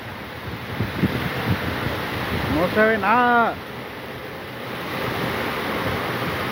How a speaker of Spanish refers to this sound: Tenga cuidado. Tenga mucho cuidado porque está muy fuerte el tormentón